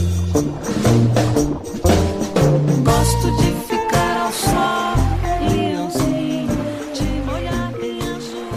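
A full-band music interlude plays on its own, with steady bass, dense harmonic layers and busy percussive hits at a consistently loud level, and no one talking over it.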